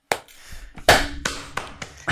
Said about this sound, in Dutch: Kijk, kort applaus voor de harmonie.